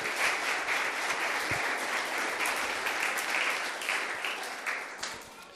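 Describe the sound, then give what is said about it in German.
Sustained applause from an audience welcoming a guest onto the stage, a dense, steady clapping that holds for several seconds before starting to taper slightly at the end. “Ähm, sie gehört hier zur Gemeinde, aber ich freue mich, dich zu begrüßen mit einem herzlichen Applaus.”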